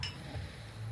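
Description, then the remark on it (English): Wine glasses clink together in a toast: one bright, high chime right at the start that rings briefly and fades, over a soft low rumble, with no one speaking. “Toast.”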